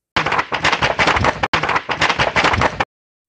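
Loud, harsh thunder crackles and booms in two long bursts separated by a brief break, rough and rattling throughout, with no voices present.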